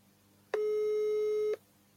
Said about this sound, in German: Ah, ich höre ein Amt.